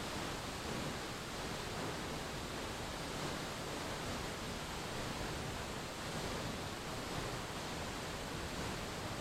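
A steady, continuous rush of falling water from the Chorrera de San Antonio waterfall fills the scene, a dense, even roar with no pauses or shifts in level.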